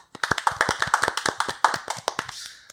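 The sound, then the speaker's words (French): Hands clapping in applause for a returning guest being introduced on a show, a dense run of sharp, overlapping claps that keep a steady pace for a few seconds before thinning out at the end. “Applaudissez-le.”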